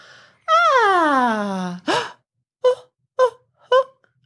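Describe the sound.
An adult voice imitates a three-month-old baby's cooing vowels: one long, falling, sing-song vowel, then a quick breathy syllable and three short, bright vowel sounds, clear with no other talk.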